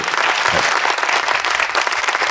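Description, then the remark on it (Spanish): A round of applause from a group: a steady, even crackle of many hands clapping that lasts a couple of seconds without building or fading, with no voices over it. “Aplauso tímido, ¿no? De no sé si aplaudir o qué, ¿no?”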